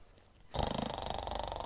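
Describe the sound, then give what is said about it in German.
A voice imitates an old lion snoring loudly: after a brief quiet pause, a harsh rasping snore kicks in abruptly and rattles on in quick rhythmic pulses until the end. “Laut und gefürchig hat er geschnarchelt.”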